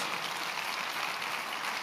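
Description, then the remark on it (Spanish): A church audience applauds a man of God: dense, steady clapping from many hands fills the whole stretch at an even, moderately loud level, with no voices standing out above it. “Te admiro y quiero que usted le dé un aplauso a este hombre de Dios.”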